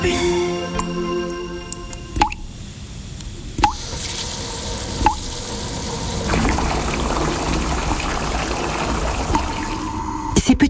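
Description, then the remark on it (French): Water from a leak, with sharp, distinct drips falling every second or so over a soft, steady trickle that swells into a fuller running flow partway through. “bruit qui coûte cher à la planète.”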